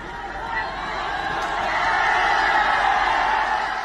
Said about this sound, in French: Une vidéo récente partagée sur les réseaux sociaux montre des centaines d'acheteurs de logements qui manifestent. Ils ont acheté des maisons qui ne sont toujours pas terminées et ont perdu beaucoup d'argent.